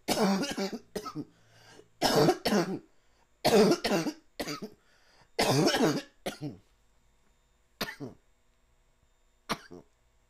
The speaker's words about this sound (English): that was a good cough. You know, my eyes get to watering and shit. That was a good cough. Don't ever get to worry about me when I be coughing because nine times out of ten is a good cough.